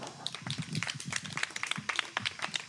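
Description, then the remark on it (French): A small audience applauds the participants of a writing workshop after a reading, with steady, dense clapping that carries on throughout, a continuous patter of overlapping hand claps at moderate volume with no voices. “Bravo, on peut les applaudir.”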